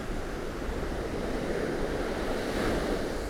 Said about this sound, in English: and the rhythm of the waves and the tides. It's just special.